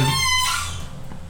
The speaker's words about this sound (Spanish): me encanta el rechineo del refri, que, interrumpe a de una manera, pero excelsa, güey.